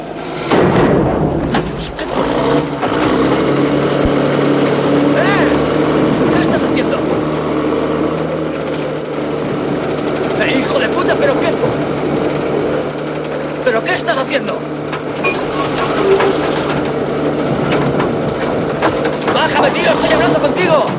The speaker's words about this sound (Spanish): De pronto, una grúa se pone en marcha y un gigantesco brazo imantado hace al coche con el hombre dentro y comienza a elevarlo.